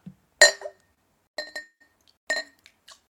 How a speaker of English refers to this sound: I have a Hibiki uh, Centauri whiskey which is a Japanese blended whiskey that you can buy from Costco. And uh, it does have one of those nice corked tops where uh, you can you can take that off and and uh, let's see here we go.